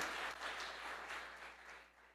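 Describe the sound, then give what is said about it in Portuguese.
Sustained applause from a crowd giving an ovation to God during a sermon, a dense wash of many hands clapping steadily, with no talking over it. “Se fosse você, eu dava a melhor salva de palmas a ele.”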